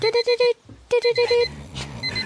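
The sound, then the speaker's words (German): An alarm clock ringtone sounds two bursts of four rapid, bright electronic beeps each, loud, with a short gap between them and a voice murmuring faintly near the end. “das war, das war auch der Klingelton von meinem Wecker.”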